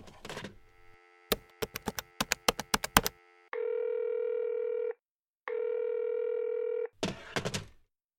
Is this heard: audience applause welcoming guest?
no